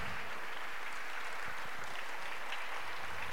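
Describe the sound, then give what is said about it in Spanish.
An audience claps together during a sermon in steady, dense applause for the Lord, a continuous patter of many hands that carries on for a few seconds with no voices over it. “Así que aplauso, por favor, porque no es para mí, es para el Señor y el Señor confronta.”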